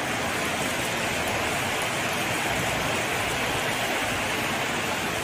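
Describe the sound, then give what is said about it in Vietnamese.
Heavy rain pours down in a steady, dense hiss that fills the whole stretch without a break, loud, with no voices over it; a winter downpour that has been falling since 1 a.m. and is still going at 4:30 in the morning. “Mẹ mưa từ lúc 1 giờ đến bây giờ.”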